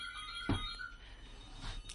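A telephone rings with a steady electronic tone, fairly quiet and continuous, with a brief knock or clatter partway through.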